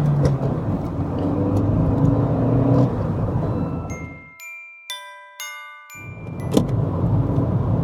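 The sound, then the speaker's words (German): Steady, loud low rumble of road noise from inside a car driving south on the A7 motorway, briefly cut away for a couple of seconds by bright tinkling chime tones before the droning cabin noise returns. No one speaks. “nehme ich euch heute wieder einmal auf eine Atmo-Fahrt im Auto mit”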